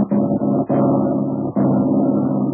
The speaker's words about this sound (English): The airplane motor started to sputter and miss. The ship began to lose altitude.